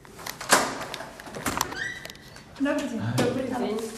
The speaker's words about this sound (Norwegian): Det tar ikke lang tid før hun åpner døra og slipper meg inn i leiligheten.